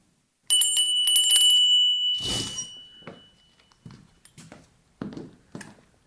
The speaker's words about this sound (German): Gegen sieben klingelte er nach Holloway.